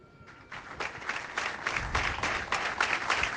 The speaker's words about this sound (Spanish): Un minuto de silencio roto por esos aplausos.